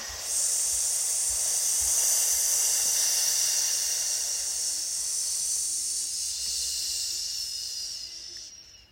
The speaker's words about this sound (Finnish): Jos tuntuu siltä, että alkaa ahistaa tai tuntuu siltä, että ei saa henkeä tai muuta, niin voi kokeilla S-hengitystä. Eli nenän kautta sisään, ja pitkä uloshengitys suun kautta.